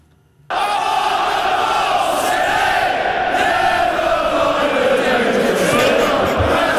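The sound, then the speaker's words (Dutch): A large stadium crowd of football supporters sings a chant together, loud and sustained, with a broad roar of many voices that starts abruptly and carries on without pause. “En je moet eens luisteren hoe ze het nu zingen.”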